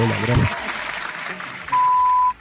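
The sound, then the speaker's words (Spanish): A crowd applauding and cheering in a steady, dense wash of clapping, with a short low thump at the start and a brief high electronic beep near the end. “Bueno, muchas gracias a la gente que está ahí afuera. Cuánta Toda, la ovación.”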